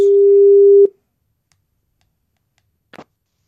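A telephone line tone as a call is placed: one loud, steady mid-pitched beep lasting under a second, followed by silence and a brief soft click, as if the call is picked up. No one speaks.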